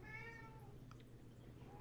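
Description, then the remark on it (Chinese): A cat meows once, a drawn-out, wavering call with bright harmonics that fades over about a second, followed by a faint rising note at the end, over a steady low hum. “对不起，我被猫影响了”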